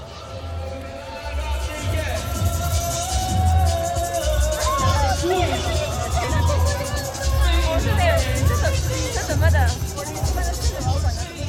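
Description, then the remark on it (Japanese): A dense outdoor crowd at a night-time street demonstration in Shibuya, with people holding placards, murmurs and calls out while a loud, booming bass beat pulses steadily underneath, the low thumps repeating in a regular rhythm throughout, with scattered voices rising above the din. “ある日の夜の渋谷どこかから低音のリズムが爆音で聞こえてくるお祭りみたいでもみんなが手にしてるのはプラカードあこれデモだ”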